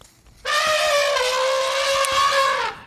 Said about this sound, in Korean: 예, 코끼리 소리예요. 네, 약간 화가 난 코끼리 소리.